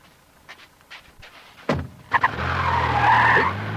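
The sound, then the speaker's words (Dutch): A few faint knocks, then a car engine roars up loudly and tires screech as the vehicle peels out and speeds away, the squeal and motor sustained. “Het, nummer van die auto.”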